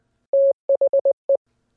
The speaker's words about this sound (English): So, for example, in Morse code, you hear